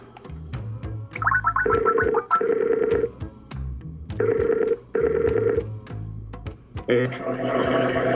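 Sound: telephone call ringing out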